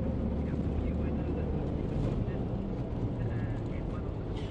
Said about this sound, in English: I mean, as we're driving along here beside the river, I'm just looking down the banks, and it doesn't look that deep.